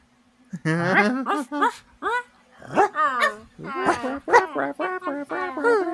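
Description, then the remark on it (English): A person imitates their sister's dog, Teddy, letting out a rapid series of high, yappy barks and whiny yips, fairly loud, with short gaps between the bursts. “you're a puppy too”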